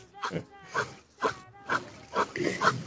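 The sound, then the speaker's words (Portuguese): A dog vocalizes in a quick series of about six short, tonal whining yelps, evenly spaced, each rising and falling briefly. “Peraí que tem um, cach um cachorro.”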